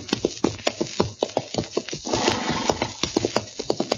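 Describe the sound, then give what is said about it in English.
Horse hooves clip-clop in a steady rhythm, stomping up dust as riders head back to Dodge, with a brief breathy whinny or snort midway through, all on their own without any talking. “Darn horse. Seems he's just bound to stomp all the dust and Candace in my eyes.”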